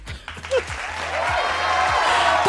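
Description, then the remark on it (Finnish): A short burst of light clapping from a few people, applauding the speaker's large nose, starts after a brief murmur and swells into a steady, fairly loud patter of applause that carries on to the end. “Annas mulle pienet aplodit, koska mun nenähän on aika hyvä.”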